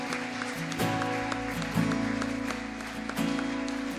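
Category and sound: crowd, audience applauding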